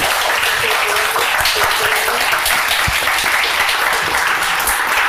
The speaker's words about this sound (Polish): Pięknie Państwu dziękuję. Wielkie brawa dla nich.